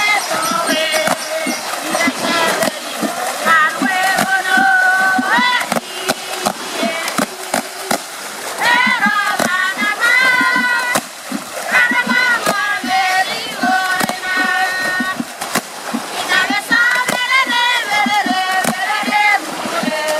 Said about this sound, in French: il y a toujours une, des grands éclats de rire à la fin. Euh, et puis tout le monde finit par s'asperger.